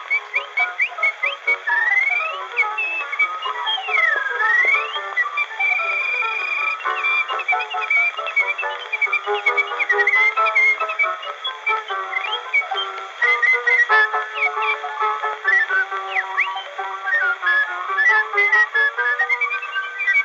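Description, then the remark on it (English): A whistler whistles a tune, imitating a mockingbird, with rapid trills, chirps and swooping pitch slides, loud, continuing for about twenty seconds with no talking. “So that's a tune called "…," uh, ….”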